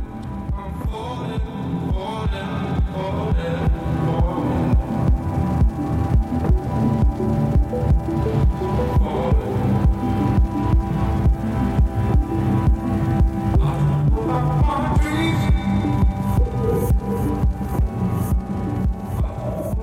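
A 2011 ambient music track plays with a deep, throbbing pulse beating steadily beneath sustained droning tones. It stays loud and dense throughout, swelling in layered waves, with no talking.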